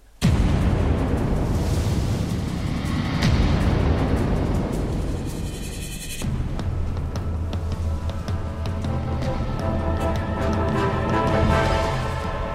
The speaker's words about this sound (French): C'est parti, jingle.